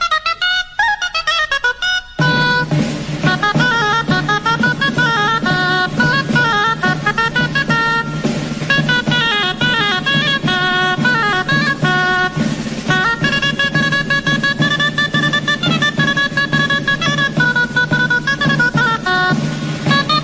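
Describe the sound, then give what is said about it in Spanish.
A shrill, reedy dulzaina plays the lively, ornamented Castilian folk piece 'Entradilla castellana', performed by folklorist and musician Agapito Marazuela, after a brief opening. It is steady and loud, with a tamboril drum keeping time underneath throughout. “de una dulzaina acompañada por un tamboril”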